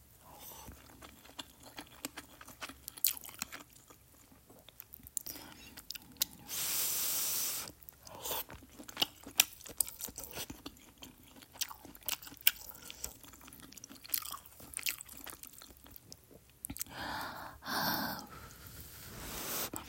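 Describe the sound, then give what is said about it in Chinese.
Eating sounds of someone chewing malatang: wet, irregular smacks and clicks, punctuated by a few long, breathy slurps or hisses. No one speaks. “口水音吃麻辣烫 好吃到高潮”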